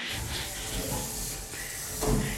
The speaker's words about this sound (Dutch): En toen vanuit het niks begon het robotje te lopen.